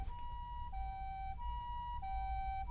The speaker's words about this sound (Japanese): 救急車の音は、去るどころか、どんどん近づいてきた。